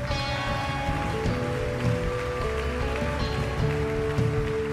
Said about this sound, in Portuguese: Em nome de Jesus, aplauda aquele que é santo, que é bom.